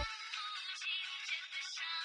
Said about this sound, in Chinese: 突然，他的电话响起。